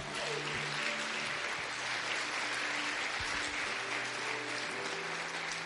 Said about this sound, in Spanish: ¿Alguien le puede dar un fuerte aplauso al Señor?